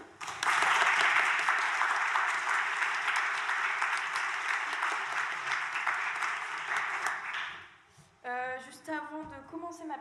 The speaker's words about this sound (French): Donc je pense qu'on peut l'applaudir.